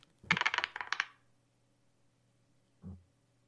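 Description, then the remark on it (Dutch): Dice are rolled, coming up 16: a rapid clattering burst of dice tumbling across a hard surface for about a second, followed by a single short knock a moment later, fairly loud with no voices. “Ja, dat jullie de dobbelstenen natuurlijk ook horen, hè, want dat is natuurlijk wel de bedoeling.”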